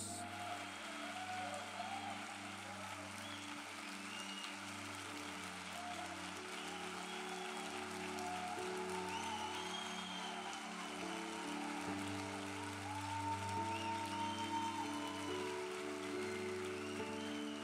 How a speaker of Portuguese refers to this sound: Se você é grato, cara, por esse momento de adoração que a gente teve, pelo Vox Connections, pelos links, eu quero te convidar a dar uma salva de palmas bem forte a Jesus.